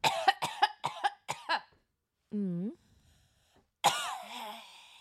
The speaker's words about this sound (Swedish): Hon hostar som ett barn, ni vet bara rakt ut med tungan ute.